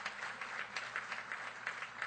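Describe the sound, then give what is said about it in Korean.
Audience applause, a steady wash of many hands clapping together with a dense, crackling texture and slight swells in intensity throughout, with no voices. “박수 쳐 주십시오.”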